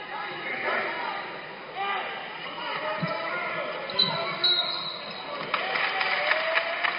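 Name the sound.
referee's whistle blowing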